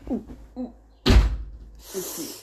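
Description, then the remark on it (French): A door slams shut with one loud, heavy bang that rings out and fades, bracketed by faint voices talking before and after. “La porte, elle va claquer.”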